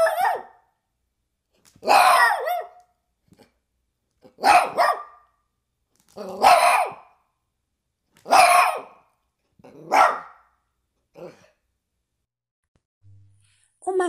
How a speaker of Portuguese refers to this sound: São dóceis, são domésticos, considerados o melhor amigo do homem. Vamos ouvir o cachorro latir?